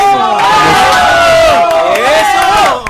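A crowd of supporters of a contestant's family cheers and chants the family's surname loudly in unison, many voices rising and falling together in a sustained, rhythmic call that fills the whole clip.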